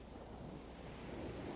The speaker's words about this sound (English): It's like that sound you hear when you're at the beach and you put a shell up to your ear, like the ocean ah. surf coming in. I do hear it now. It must be some weird Skype effect.